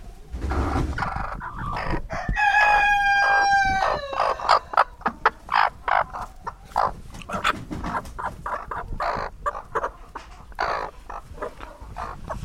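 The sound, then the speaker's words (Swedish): A broody hen that has lain down growls, giving a drawn-out harsh, nasal call followed by a long string of quick, agitated clucks and grumbles, with no talking. “så var det en som la sig. Ja. och morrar.”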